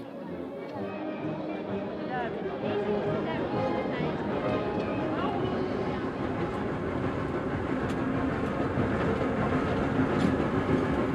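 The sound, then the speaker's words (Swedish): A train to Berlin rolls steadily along the rails with a continuous loud rumble and faint rhythmic clatter, while indistinct voices murmur underneath throughout. “Sen följde sång och hornmusik ända tills det var dags för oss att kliva ombord på tåget till Berlin.”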